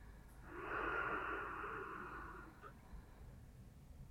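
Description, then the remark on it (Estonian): A single deep, airy breath drawn in during a guided breathing exercise, lasting about two seconds before fading into quiet hiss. No talking. “hinga sügavalt sisse ja märka hingamist oma rinnaku keskmes ja märka, kuidas kehale meeldib sissehingamine.”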